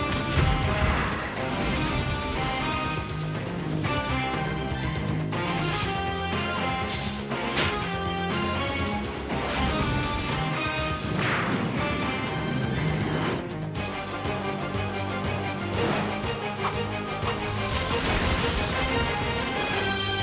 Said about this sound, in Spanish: ¿Os suena? Yo creo que a los viejos del lugar seguro que os suena. Se trata de la mítica serie de animación de los años 90 sobre la Patrulla X o los X-Men, como queráis. Una de las series de Marvel más queridas de la historia